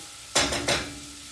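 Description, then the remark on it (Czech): Chili seeds hit a hot pan with two sharp, hissing bursts of spitting, each fading into a brief sizzle, with no one speaking. “Oni budou prskat, jo, ale no nevadí.”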